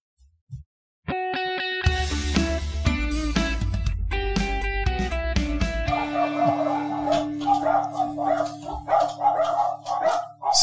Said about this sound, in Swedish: Uh, och jag får skäll. Han har ju lite, lite gårdshundar, ett, ett gäng. Uh, som inte är sena på bollen och pratar med när man kommer förbi.